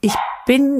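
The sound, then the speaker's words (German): A dog barks twice, a short sharp yelp followed by a longer, whining bark, with a person briefly starting to speak at the same moment. “das war mein Hund.”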